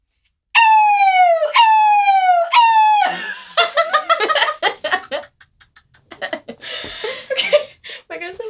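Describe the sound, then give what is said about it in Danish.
As a demonstration, a voice a little away from the microphone imitates a fire alarm siren with three loud, rising-and-falling wails in quick succession, then breaks into laughter and chatter from more than one person. “Så hvis du lige vil gå derhen, og så siger du bare som en brandalarm.”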